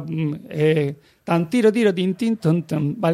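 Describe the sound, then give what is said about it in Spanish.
A voice hums and sings a short melodic phrase on nonsense syllables in quick, detached stepping notes, imitating the orchestral ritornello that opens the first chorus of a Christmas cantata, then a brief spoken word follows. “Bueno, el primer coro, Christian Erzen em, eh, empieza con toda la orquesta, como hemos escuchado, haciendo un ritornelo con la frase contra...”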